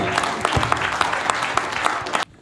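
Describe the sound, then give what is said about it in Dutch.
A crowd claps steadily and loudly for a couple of seconds, welcoming Socialist Party politician Renske Leijten, a dense wash of many hands, then the applause cuts off abruptly. “zij werd in 2006 Kamerlid mag ik een hartelijk applaus voor Renske Leijten van de Socialistische Partij.”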